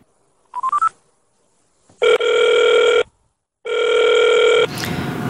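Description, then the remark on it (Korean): A quick run of short telephone dialing beeps, followed by two long, steady ringback tones with a pause between them, then a burst of line noise as the call connects, placing a phone call to Lee Chang-bok, chairman of the 6.15 South Committee, about the Shenyang meeting. “네, 이 회의에 대해서 어, 이창복 6.15 남측위원회 위원장님 전화 연결 통해서 어, 만나보도록 하겠습니다.”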